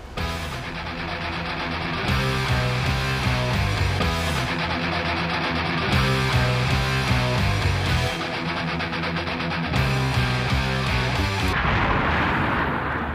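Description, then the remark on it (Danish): A loud, dense sound effect of fire and brimstone raining down from the sky on the burning city of Sodom: continuous roaring rumble packed with booming blasts and crackling bursts, sustained without pause and with no one speaking. “Sodoma er dødsdømt, for i dette øjeblik havler det ned fra himlen med svovl og med ild. Byen står i flammer, man tror ikke sine egne øjne.”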